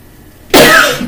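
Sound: cough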